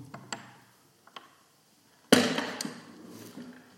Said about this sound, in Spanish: También están las ventanas, a ver si logro abrir una.